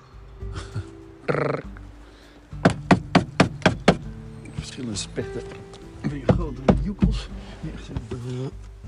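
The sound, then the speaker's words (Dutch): A woodpecker hammers its beak against wood in a quick, evenly spaced burst of about seven sharp knocks, fairly loud, followed by someone talking over a quiet outdoor background. “Hoor die uh, specht is.”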